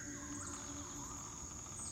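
Steady, shrill crickets chirping in a continuous high-pitched drone, a dense nighttime chorus around a village in a valley, with no voices.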